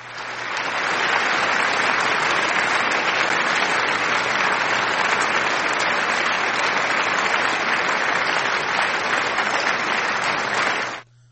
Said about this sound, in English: some of y'all did miss it uh i mean some of y'all did get it so here's your applause